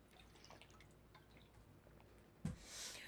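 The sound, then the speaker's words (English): Quiet room tone with faint liquid drips, then a soft thump followed by a short, hissing rush of water being poured or sipped. No one speaks. “need some water.”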